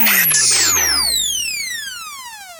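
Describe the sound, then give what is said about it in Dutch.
A Dit Radio station jingle from the package that went on air around 2000 or 2001, made of high, whistling synth tones that glide steadily downward in pitch, layered over a brief noisy burst at the start, fading gradually with no voices. “Ik weet nog precies dat het ook deze jingles waren.”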